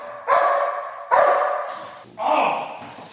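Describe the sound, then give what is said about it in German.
A police service dog searching a hall barks three times in steady succession at a suspect it has found, loud, each deep bark ringing out with a slight echo. “Jetzt hat er ihn gefunden und der Täter wird verbellt.”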